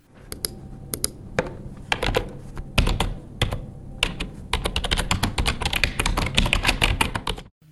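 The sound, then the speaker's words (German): Close, continuous typing on a computer keyboard: bursts of quick clacking keystrokes with brief pauses, mixed with a few sharper mouse clicks, no voices. “Angenommen, ihr podcastet und dann müsst ihr zwischendurch kurz was nachschauen, dann müsst ihr tippen und klicken. Nun, ungefähr so klingt es.”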